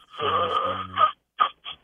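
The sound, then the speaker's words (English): A man breathes in a wheezy, labored way, like a broken rubber duck: one long rasping, squeaky breath with a low snore-like rumble, then two short, sharp gasps after a brief pause. “Like the air is not really getting in there the way it should.”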